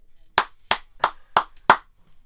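Five sharp hand claps in a steady, even rhythm, fairly loud, with brief silence between each one and no voices.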